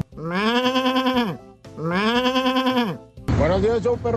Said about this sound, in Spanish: Se borrego se pone bravo.